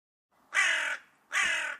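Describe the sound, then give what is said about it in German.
A raven perched in a tree caws twice, two harsh, raspy calls about half a second each with a short pause between, loud, with no other sounds around them. “Ein zweiter Rabe saß auf dem Baum zu ihrer Rechten und auch er starrte Susan in die Seele.”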